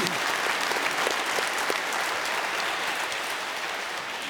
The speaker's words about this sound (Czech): Zatleskáme.